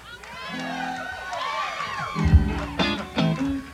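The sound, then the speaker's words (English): A lively audience cheers and whoops, many voices overlapping at moderate volume, with a few bursts of clapping and shouts rising toward the end, recorded in the evening for future broadcast on Q102. “And, uh, when you hear the applause, That means your hands will be going out on that record.”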